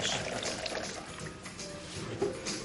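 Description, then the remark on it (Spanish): A waiter pours wine into glasses in a bar for friends sitting around a barrel: a continuous trickling splash of liquid with a gurgling texture that holds at a moderate level for a few seconds, with no voices over it. “Los amigos están sentados en torno a un barril en un bar, mientras el camarero les sirve unos vinos”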